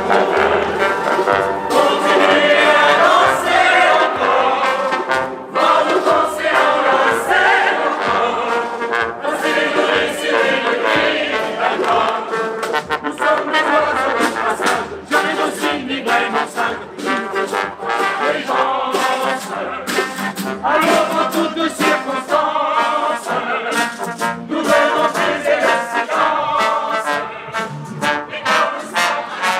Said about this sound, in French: Danser encore. Flash mob Gare de l'Est, à Paris. Ce 8 avril, hier. Écoutez.